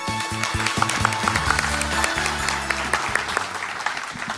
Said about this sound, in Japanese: どうぞ大きな拍手お願いいたします